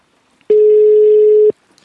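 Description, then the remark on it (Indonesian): A loud, steady telephone dial tone sounds once for about a second while a call to a woman is being placed, a single unbroken hum with no voices over it, framed by quiet background noise. “akan telepon perempuan.”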